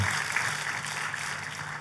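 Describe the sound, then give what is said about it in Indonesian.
An audience applauds for God in a dense, steady wash of clapping that holds at an even, fairly loud level throughout, with no voices rising above it. “Kita kasih tepuk tangannya lebih meriah lagi buat Tuhan gitu.”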